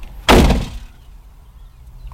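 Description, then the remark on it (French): A car trunk slams shut outdoors with a single heavy, muffled thump that fades quickly, leaving faint ambient quiet afterward. “Alors, son seul fermeture coffre extérieur.”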